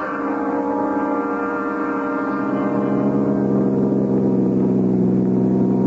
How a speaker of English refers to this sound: put the top down and drove over by the old quarry, wrenching the convertible around the turns until the tires screeched wind rushed by me, the wind that I hoped would clear my head.